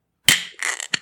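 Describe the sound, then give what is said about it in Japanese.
The full-open pull-top lid of a draft-jug style beer can (nama jokki can) is pulled fully open on a Friday morning broadcast: a sharp metallic crack, a hissing scrape as the lid peels back, then a quick final click. “金曜日の朝に皆さんにこのビールを開ける音をね、お届けするってことで、”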